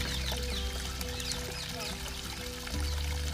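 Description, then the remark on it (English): Steady water of a babbling brook in a park trickling over stones, a continuous gurgle with faint birds chirping in the background. “If you listen really carefully, you can hear the sound of the babbling brook.”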